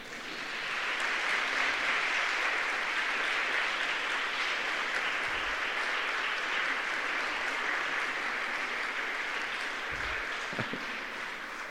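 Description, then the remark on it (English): At a graduation ceremony, a large crowd of graduates, standing and facing their families to thank them, applauds with sustained hand clapping, a dense, steady wash of claps for several seconds with no speech over it. “And I'd like you to thank them with a hand clap.”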